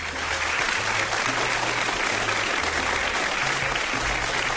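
A steady burst of audience applause, dense clapping holding at an even loudness throughout with a faint low hum beneath it.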